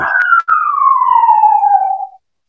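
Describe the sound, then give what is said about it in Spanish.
A police siren passing nearby wails on its own, one long loud tone sliding steadily down in pitch over about two seconds after a brief break near the start, then cutting off. “Como, como no sé si se llega a escuchar en, el capítulo, pero aquí al fondo, pues estoy, estoy siendo buscado por la policía o, o por alguna razón se le ocurre pasar por aquí, por aquí cerca”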